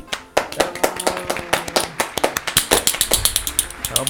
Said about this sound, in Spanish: Un aplauso para este cabrón.